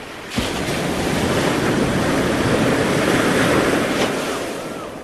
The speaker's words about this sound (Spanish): las olas del mar embravecido,